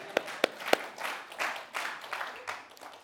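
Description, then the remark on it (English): Three sharp claps ring out, followed by a brief, fairly quiet wash of scattered applause and crowd noise given for the Bible passage just read, rising and fading over a few seconds. “I mean, I, I, you guys, I kind of feel like we should just stop right here and give the Bible some applause.”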